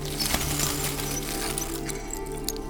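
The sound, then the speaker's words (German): Mirror shards scraping and grinding against each other as a woman clears a path through them, with scattered bright, high clinks over a steady rough rasp that runs throughout. “Das Scharren, Schleifen und Klirren ritzt ihr Trommelfell.”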